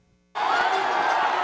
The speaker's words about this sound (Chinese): 法国以小组赛第一名之姿晋级欧洲杯十六强，大批球迷齐声欢呼。虽然口罩令宵禁都已经解除，但这样的群聚现象在 Delta 变种病毒威胁下，不免让人担忧。